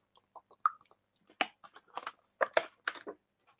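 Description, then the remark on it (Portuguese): Someone drinking water: a quiet, irregular run of wet gulps, sips and mouth clicks, a dozen or so short bursts with brief pauses between them, and no talking. “Deixa eu só d'água.”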